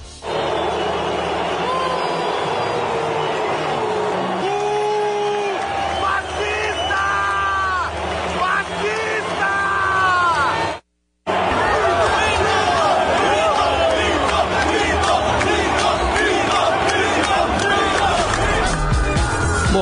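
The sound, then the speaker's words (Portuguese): A large crowd at the Maracanã stadium roars continuously as Bolsonaro goes onto the pitch for the Copa América award ceremony: a dense wash of booing, shouting, whistling and jeering with scattered applause, interrupted by a brief cut of silence before the loud noise resumes. “Ele foi recebido entre vaias e aplausos pela torcida presente lá no estádio.”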